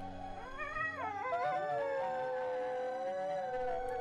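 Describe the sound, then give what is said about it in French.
Several wolves howl together in a sustained chorus, long overlapping wavering tones rising and sliding over one another, fairly loud and continuous with no talking. “Lorsque les deux pattes se mirent à chanter à la lune, les loups fredonnèrent une mélodie que leur avait apprise petite fille.”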